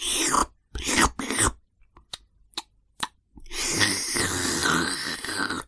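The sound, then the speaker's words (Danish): A voice imitates a grandmother loudly slurping tea: a few short sucking bursts and clicks, then one long, noisy, drawn-out slurp, prominent with no talking. “Der var ellers fuldstændig stillhed, men bedstemorens slubren kunne virkelig høres over det hele.”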